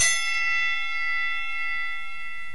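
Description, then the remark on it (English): A single bell strike with a bright, metallic ring that holds steady and sustains for a couple of seconds before cutting off abruptly, heard alone. “Let's start the show. Ring the bell.”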